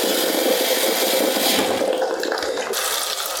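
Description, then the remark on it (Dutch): A steady rush of water pours continuously for a few seconds, a bright hissing splash with no voices over it, as just under a litre of boiling water is added to a spiced soup being cooked. “Nu pas ik nog een kleine liter kokend water af.”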